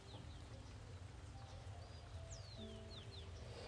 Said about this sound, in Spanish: Y los pajaritos que suavemente cantan las alabanzas al Señor.